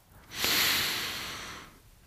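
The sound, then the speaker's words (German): A single long, deep inhale drawn in through the nose down into the belly during a breathing exercise, clear, with a soft airy hiss that swells quickly and tapers off over about a second and a half. “Das heißt, mach gerne mal mit, atme tief ein, direkt in den Bauch”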